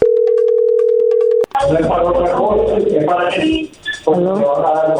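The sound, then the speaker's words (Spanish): A steady, loud telephone line tone hums for about a second and a half as a call is dialed, then cuts off abruptly as a voice begins talking over the phone connection. “No haga ruido, ahí se está marcando.”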